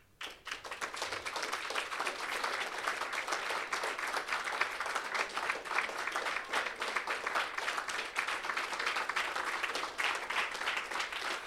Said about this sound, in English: And I just want you to clap your hands, thinking about what God wants to do in your life.